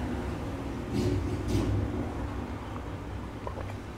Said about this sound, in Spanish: pero es que el vecino que, tiene moto decidió prenderlo ahorita.